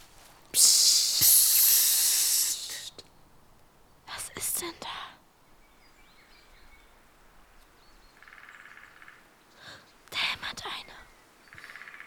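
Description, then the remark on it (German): A woodpecker raps out short bursts of sharp knocks in a quiet forest, with a breathy rustling hiss at the start and faint bird chirps in the background. “Das ist der Specht.”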